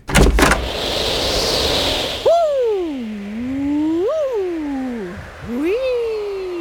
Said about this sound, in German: Ich glaube, es klopft an der Tür. Ah, es ist wieder jemand an der Tür.